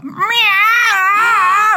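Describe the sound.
A person's voice imitates a cat in heat, drawing out one loud, wavering yowl that rises and falls in pitch for nearly two seconds, with no other sounds.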